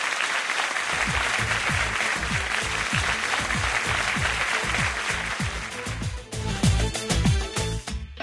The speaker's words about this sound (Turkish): Sizlere kocaman bir alkış efendim.